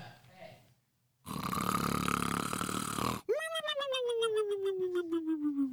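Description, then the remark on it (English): A cartoonish Three Stooges snore sound effect: a loud, raspy inhale followed by a long, descending whistling exhale, played once and prominent, with a bit of faint voice at the start. “wouldn't be sleeper without playing the uh, sleeper sound effect, and here it is.”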